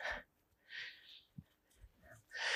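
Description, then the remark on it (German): An older dog breathing heavily and panting while being walked through a forest, three loud, rough huffs of breath separated by short quiet pauses, with no talking. “Oder ein heftiges Atmen, das ist mein etwas älterer Hund”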